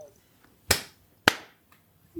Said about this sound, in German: Ich habe zu früh geklatscht. Kriegen wir trotzdem irgendwie hin.